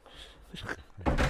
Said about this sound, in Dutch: Die metalen deur.